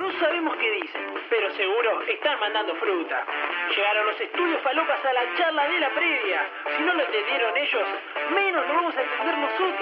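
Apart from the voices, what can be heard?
radio segment jingle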